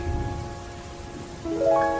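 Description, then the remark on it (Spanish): Steady rain hisses in a continuous wash, with a soft sustained musical drone beneath it that swells slightly louder near the end. No one speaks. “Todo está turbio, oscuro, llueve.”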